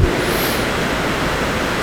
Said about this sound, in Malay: dan ada nikmat khusus di subuh ini apa itu nikmat turunnya hujan di subuh ini